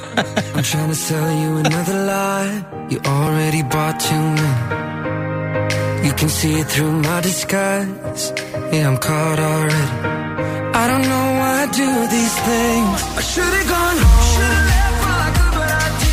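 A polished pop song plays steadily and loudly, with layered vocals over synths, bass and a driving beat, sounding like a track broadcast on the radio.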